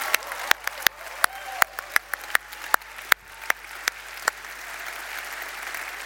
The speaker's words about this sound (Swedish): Ska vi ge dem en applåd, de som alldeles nyss har bestämt sig?